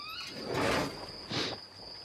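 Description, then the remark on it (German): After a knock, a small, low servants' entrance door swings open at night in a short broad rush, followed by a second brief scrape, while a thin, steady high-pitched chirring like crickets continues in the background. “Auch hier klopft ihr. Und die Tür öffnet sich.”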